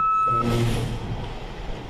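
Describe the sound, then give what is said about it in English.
A dump truck's reversing beep: one steady, high-pitched tone at the start, then a loud, low diesel engine rumble with a hissing burst over it. No one talks. “time there's a great interview, there's always some dickhead in a fucking dump truck who who shows up at the last second, puts in reverse.”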